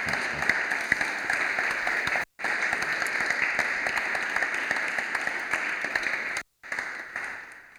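A crowd applauds steadily for several seconds, a dense, even wash of many hands clapping with no voices, briefly cut off twice before fading out.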